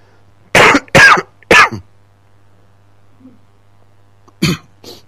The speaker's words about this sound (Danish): undskyld alt det her hosteri